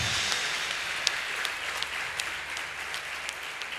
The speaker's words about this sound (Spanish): quiero que le des un fuerte aplauso al que vive por los siglos de los siglos. Amén.